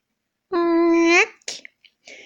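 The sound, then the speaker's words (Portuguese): A voice imitates a creaking door opening: one steady, nasal drawn-out tone that bends upward at the end, followed by a few soft breathy clicks and a short hiss. “Mas quando ia atirar, ouviu a porta fazer.”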